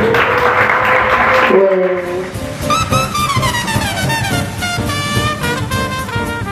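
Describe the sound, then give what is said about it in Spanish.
Audience applause fills the first second and a half as a dense, steady clatter of clapping, then gives way to sustained melodic tones with sliding pitches while the clapping fades underneath. “Eh, un aplauso para los...”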